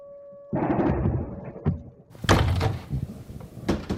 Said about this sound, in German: Es herrscht im Moment landesweiter Luftalarm. Ich stehe jetzt am Fenster und vielleicht hört man es im Hintergrund. Jetzt arbeitet die ukrainische Luftabwehr.